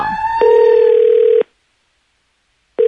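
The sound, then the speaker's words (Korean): A steady electronic telephone ringback tone of a call to a younger sibling's phone sounds in a one-second burst, falls silent, then starts again for the next ring, with a faint rising tone at the very beginning; the call goes unanswered. “하, 동생에게 전화를 걸었죠.”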